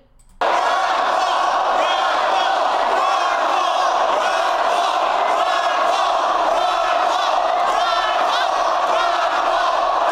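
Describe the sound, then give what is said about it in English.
A large crowd on the floor of the 2012 Republican National Convention, with balloons and signs, screams, cheers and chants Ron Paul's name continuously at full volume, a dense wall of voices that erupts within the first half second and never lets up. “Balloons and signs and happy people screaming”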